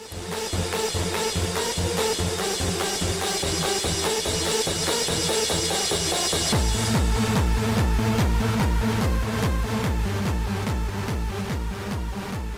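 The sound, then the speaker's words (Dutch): A loud, driving hardcore electronic dance music track with a pounding four-on-the-floor kick and dense synth layers; around the midpoint the bass drops into a heavier, pulsing pattern as the beat continues relentlessly. “Vond ik zo'n waanzinnige track. Dat is echt hardcore, maar ja.”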